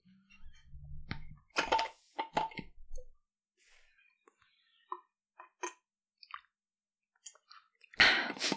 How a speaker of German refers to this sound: Entschuldigung, ich muss mal was trinken.